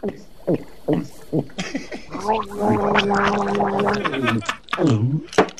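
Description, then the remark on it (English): Someone noisily gulps down a drink, a run of wet, throaty swallows and glugs, some drawn out and voiced, ending with a couple of short gasps. “Now, uh, drink that down.”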